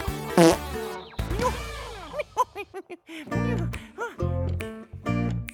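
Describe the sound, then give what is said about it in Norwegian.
A loud, cartoonish fart sound effect, a 'sea banana fart' let out by the character Fantorangen: a long string of buzzy, wobbling blasts with sliding pitch, sputtering in an uneven rhythm, with no talking. “Men det var jo jeg som sa at prim er som lim, sier Fantorangen og slipper en sjøbananpromp.”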